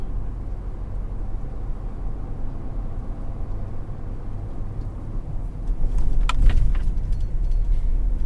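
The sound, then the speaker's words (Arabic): A car with no fuel left, after six hours on the road, drives steadily along the road, its low engine and tire rumble continuous throughout, growing louder near the end with a few brief rattles; no one speaks. “أسكت أسكت ولا كلمة يا فارس أسكت وسوق”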